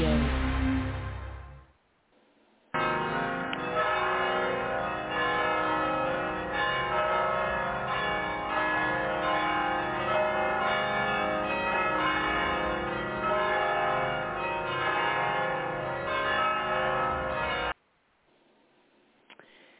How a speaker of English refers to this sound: that was 15 seconds of the wonderful Mission Bells down in San Juan Capistrano, which is about 25 minutes south on the freeway for me to get down there.